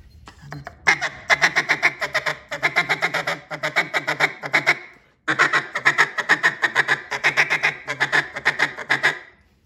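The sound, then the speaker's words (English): A duck call blown in a rapid feed chuckle, the caller backing off the voice and pushing air to get little squeals: two long runs of fast, rhythmic pulsing notes with little high squeals mixed in, loud, separated by a brief pause. “Now you see, changing that feed sound, I backed off on my voice a little bit and then just pushed my air to get those little squeals.”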